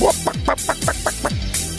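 A quick run of chicken clucks, about six or seven short bursts in a bouncy rhythm, fairly loud with no talking over them.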